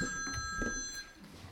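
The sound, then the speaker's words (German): A mobile phone rings with a steady electronic tone, fairly faint, sounding for about a second before cutting off amid low room noise, during a university lecture. “Ist das mein Handy?”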